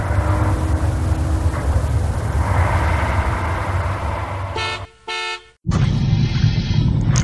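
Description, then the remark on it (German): A bus engine rumbles loudly and steadily as the bus arrives, then two short, blaring horn honks sound in quick succession before the engine noise picks up again. “Und da kommt auch der Bus.”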